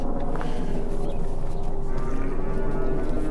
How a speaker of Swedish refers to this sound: Ja, de hör att vi är på väg eller? Vad vill de när de råmar sådär? Ja, nu tar vi vägen in där de brukar gå ut på sommaren så de tror nog att det kanske börjar vara dags.